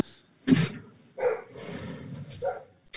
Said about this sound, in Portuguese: eu vou fechar a janela aqui rapidinho porque o cachorro começou a latir.